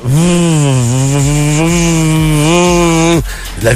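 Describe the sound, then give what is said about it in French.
A single voice makes a loud, continuous buzzing hum imitating the vibration of an item from an erotic shop, made with a long string of 'V' sounds, wavering slightly in pitch for about three seconds before cutting off abruptly. “le son de la vibration d'un objet des boutiques érotiques au 7e ciel.”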